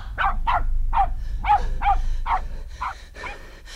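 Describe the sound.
A man imitates a dog's barking, as Wolf Leib the thief does in the story, with a quick series of about nine loud, rhythmic barks over a low background rumble.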